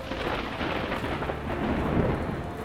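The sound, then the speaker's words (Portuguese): A steady, deep rumble of thunder rolls beneath a dense wash of storm noise on a stormy night with lightning, holding at a fairly constant loudness with no voices present. “Em noites de tempestade, onde é difícil voar entre os raios,”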